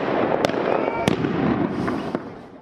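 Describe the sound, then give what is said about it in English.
Sharp bangs of homemade firecrackers burst out several times, irregularly spaced, over a dense roar of crowd noise and shouting during a street riot between drug farmers and police in La Paz, Bolivia, some blasts louder than others. “And ugly scenes have shown homemade firecrackers flying only to be responded to with tear gas canisters from riot police.”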